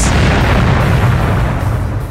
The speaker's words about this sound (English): A new explosion, this time very close,